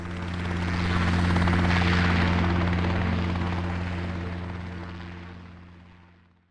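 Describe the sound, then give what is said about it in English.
A helicopter's rotor thumps steadily with a deep, droning engine hum, loud at first and then gradually fading as it moves away. No one speaks over it. “Are we going on a helicopter ride?”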